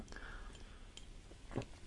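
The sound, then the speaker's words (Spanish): Soft sipping of coffee: faint wet mouth sounds and small slurps, with one slightly louder sip near the end, over a quiet background with no talking. “Dicho esto, bueno, yo voy haciendo sorbos de café, me vais a perdonar.”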